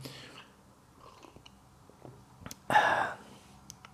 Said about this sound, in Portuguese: Pá, eu estou a sorver o chá, minha avó sempre odiou isto. lembro minha avó odia que eu sorvesse o chá.